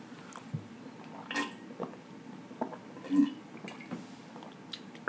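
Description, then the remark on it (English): Someone drinks water from a jug, with soft wet gulps and small liquid squishes at irregular intervals, quiet and without talking. “that water is crazy.”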